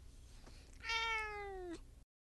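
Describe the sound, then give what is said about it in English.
A cat lets out one long, drawn-out angry meow, fairly loud, its pitch sagging slightly toward the end, with only faint background noise around it. “Say something into the mic, cat.”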